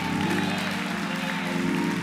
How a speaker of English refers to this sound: Come on, give him a big hand clap.